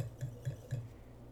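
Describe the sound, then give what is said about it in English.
Three quick, light clinks of wine glasses touching in a toast during a wine tasting, in an even rhythm and fairly quiet, followed by a moment of hush with no talking. “Cheers.”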